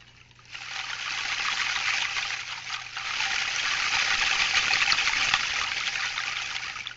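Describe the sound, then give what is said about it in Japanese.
Many hanging plastic straws of various lengths, some cut short, jostle together in a continuous, dense rustling patter that sounds like a trickling stream, steady, with no one speaking. “ちょっと水みたいな音に聞こえるかなと思うんですけどこれはあのストローを使っていますいろんな長さのストロー、まあ、短く切ったやつとかもありますねこういうものをたくさんぶら下げるとこういうねなんかせせらぎのような不思議な音になりますね”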